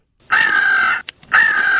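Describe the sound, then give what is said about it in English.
Two loud, harsh eagle screams close together, each a raspy drawn-out screech, separated by a brief click, with no other sounds around them. “Here's an alternative uh, eagle scream for you.”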